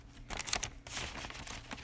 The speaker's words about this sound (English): Um, hold on, turning the page.